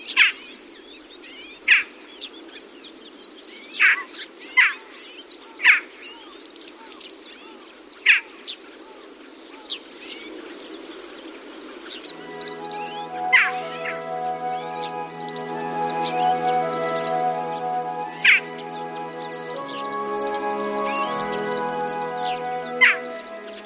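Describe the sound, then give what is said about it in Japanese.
Short, sharp, high-pitched Daurian jackdaw calls ring out one at a time at irregular intervals over a steady insect-like hum, continuing later over a sustained tonal backing, recorded in Itakura, Gunma Prefecture, Japan. “今朝は群馬県板倉町から国丸ガラスの声をお届けしました”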